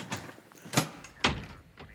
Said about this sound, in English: The ambulance door is closed.